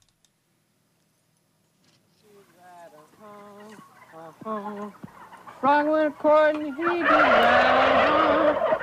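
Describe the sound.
About 300 turkeys gobble in quick, repeated bursts that grow louder and busier, ending in a dense, noisy chorus of many birds, with a voice briefly heard among them; the opening track of music an American composer recorded live with animals.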